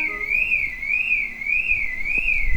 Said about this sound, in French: C'est ça le gong. c'est une alarme de voiture, non